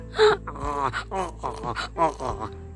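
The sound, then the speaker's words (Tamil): A person imitates an angry donkey braying: a loud run of strained, honking vocal bursts and groans, repeated in quick, uneven pulses. “அப்படியெல்லாம் கத்த ஆரம்பிச்சிருச்சு”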